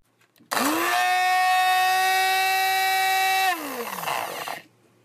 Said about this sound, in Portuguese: E lá foi ela, colocar o pote inteiro de morangos dentro do liquidificador, encher de leite até o topo e ainda esqueceu de colocar a tampa. Quando ela ligou o liquidificador,